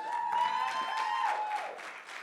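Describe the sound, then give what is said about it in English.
An audience at Encounter applauds a family with a steady patter of many hands clapping, fairly loud and even throughout, easing slightly at the end, with a sustained tone riding over it before dipping away. “Not that many people clap, so I don't know.”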